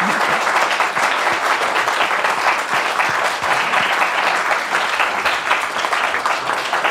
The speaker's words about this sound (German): machen wir mal einen kleinen Applaus zwischendurch. Für dich.